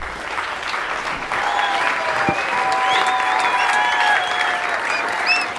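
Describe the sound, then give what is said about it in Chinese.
Loud, dense applause from a crowd as a door is pushed open, a steady wash of clapping that swells slightly after the first second and holds for several seconds, with a few high whistles and cheers threaded through. “群众涌现，大家响亮的掌声为这一切的空洞有了最好的答案。”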